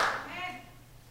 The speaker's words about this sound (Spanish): Su bendición está aumentando y quiero que usted le dé un aplauso a ese Dios maravilloso que nos ha traído a este lugar para bendecirnos.